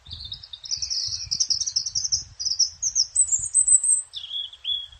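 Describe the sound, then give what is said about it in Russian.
A European robin sings a continuous, high, warbling phrase of thin notes that rise and run together, then drop to a lower trill, with faint low rumble underneath and no talking. “А у Зарянки вот именно вот этот звук как будто идут ноты, ноты, ноты, ноты, а потом все вдруг склеивается.”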